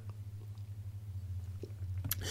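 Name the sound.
sipping water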